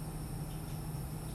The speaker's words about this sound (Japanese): で今こう水の音が入ってると思うんですけど聞こえますかね